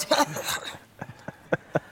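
A man coughs in the dining room, first in a quick rough burst, then with a few separate short coughs spaced apart, sounding somewhat muffled.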